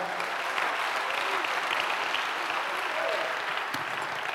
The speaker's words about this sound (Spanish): Dale un aplauso al Señor por eso, amado hermano.